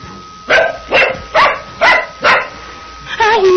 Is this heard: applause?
no